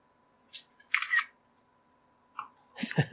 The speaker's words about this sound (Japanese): 今写真を撮ってぶん投げた方がいいかもしれない。いいっすよ。ちょっと待ってくださいね。はい。すごい今まさにっていう感じの写真撮ると聞こえるかもしれないですけど。